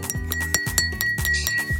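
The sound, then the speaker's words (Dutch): A glass ball being handled, giving off several light clinks and taps at an uneven pace, each leaving a brief ringing tone, with no voices. “Het is gewoon, weet je, je pakt die bol en je voelt er een beetje aan.”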